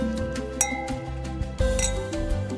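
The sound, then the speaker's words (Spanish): Wine glasses clink together in a toast, a few bright chimes spaced over a couple of seconds, each leaving a lingering ring. “Salud. Ah, salud.”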